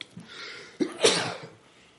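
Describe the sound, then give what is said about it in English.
A single sharp sneeze bursts out after a short breathy inhale, loud and explosive, then trails off with no talking. “Man, that's, bless you, dog. Bless you.”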